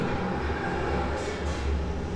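vehicle, tram passing

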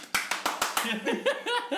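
human body sound, loud hand clap

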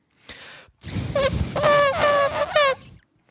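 animal, elephant trumpeting

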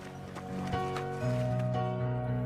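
animal, horses

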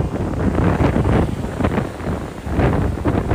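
nature, ocean waves with wind

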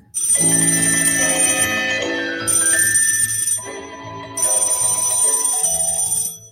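household object, telephone ringing

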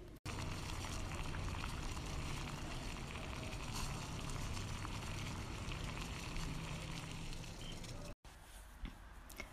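household object, water boiling

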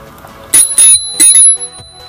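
signal or alarm, bicycle bell ringing

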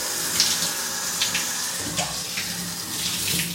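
household object, shower water running

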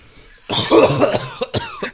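human body sound, coughing

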